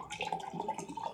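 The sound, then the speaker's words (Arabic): Water pours in a brief, steady stream for about a second, a soft continuous splashing trickle heard faintly and on its own with no voices. “يا رب يكون ده صوت ميه انت بتصبها يا رب لا ميه ميه”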